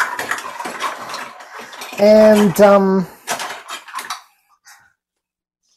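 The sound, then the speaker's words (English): Metal cutlery clatters and jingles for about four seconds as someone rummages through utensils to get out a teaspoon, with a brief spoken hum in the middle, then it falls quiet. “There's my teaspoon.”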